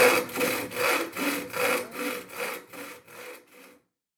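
A hand saw cuts a board off along a marked line in about eight steady, rhythmic strokes, each a bright rasping whoosh, the strokes gradually fading until the sawing stops.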